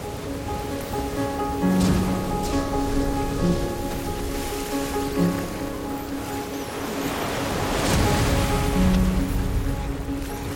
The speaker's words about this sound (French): Je réalise qu'une vague vient de déferler sur nous.